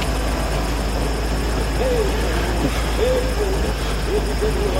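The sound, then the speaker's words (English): A car engine idles on a highway in a film scene with a steady, continuous low rumble and hiss, while faint muffled voices rise and fall over the top; the car has almost hit a limping man, and Dennis Hopper steps out of it. “He almost gets hit by a car and sort of the ultimate reversal of fate.”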